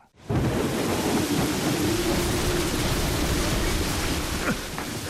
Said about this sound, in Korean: 그렇게 뱃사람이 되어 동생을 찾아 이곳저곳을 떠돈지 10년쯤 지났을 때 그는 바다에서 폭풍우를 만나 파선을 당하게 되죠.